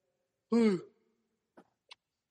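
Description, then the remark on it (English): A single voiced yawn that swells quickly and trails off into a breathy exhale, followed by two faint mouth clicks in otherwise quiet surroundings. “Sometimes you just got to yawn in life.”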